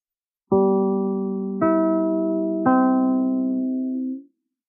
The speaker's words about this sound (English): Always listen for the familiar three NBC chimes. They're your invitation to fine radio entertainment.